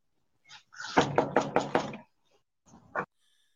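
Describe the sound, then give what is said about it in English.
A quick burst of about five firm knocks on the front door of a parents' house in steady rhythm, loud, followed after a pause by one more lone knock. “M- mama, y'all, mama, daddy, answer the door, please.”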